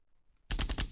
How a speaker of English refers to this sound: So, we getting the gunshots. That's us as a whole, man. It's fucked up.